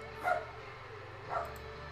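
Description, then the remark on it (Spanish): A small female dog lets out two short, high whining yips about a second apart, over a steady low background hum with no one talking. “Hasta mi perrita se queja, hasta mi perrita se ha quejado de ese corte”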